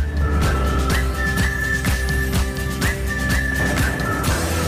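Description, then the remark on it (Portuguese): A whistled melody carries a short advertising jingle for AGA Seguros insurance on the radio, its bright tune sliding between notes over a steady beat of backing music with regular percussive hits, loud throughout. “e foi também, atenção que vem aí o assobio, foi também uma oferta AGA Seguros.”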